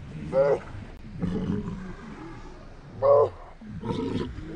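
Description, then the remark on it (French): A walrus gives two loud, bellowing calls a few seconds apart, each a short harmonic bawl, with lower grumbling and rumbling sounds continuing in between. “c'est qu'il y avait effectivement une reconnaissance entre la mère et le jeune morse extrêmement efficace.”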